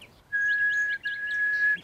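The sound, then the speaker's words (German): A bird sings a quick series of bright, repeated chirps, layered over a steady sustained high whistle, with a short break midway and no talking. “Und wenn man sich dann dazustellt und die singt einem vor und ähm, man macht sowas vor oder nach, also man pfeift ihr,”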